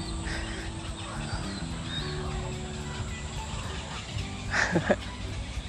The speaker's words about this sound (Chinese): 就是有一个小小小湖，然后中间有个岛，呃，上面有很多的呃白鹭鸶、大鹭鸶、小鹭鸶，还有呃夜鹭啊，很吵，大家有听到吗？就是很多哦，还有鸭子的地方。